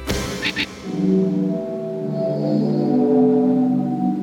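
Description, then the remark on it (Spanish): Low, breathy organ-like tones from the sea organ in Zadar, 35 pipes submerged under the marble steps of the seafront promenade, swell and overlap in sustained, shifting chords at sunset. The waves push them, with a brief splash near the start and a steady wash beneath. “En las escaleras de mármol del paseo marítimo se escucha el sonido del órgano del mar compuesto de 35 tubos sumergidos en el agua que suenan con el vaivén de las olas.”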